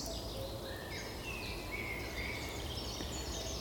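Faint birds sing and chirp in the background, their thin high calls drifting over a steady, hissing outdoor background. No one speaks.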